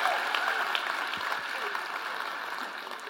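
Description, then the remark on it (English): An audience tries again to clap together in unity, many hands clapping in a dense, steady wash of sound that stays fairly loud and even, fading only slightly toward the end. “If we're going to clap, let's commit to clapping together.”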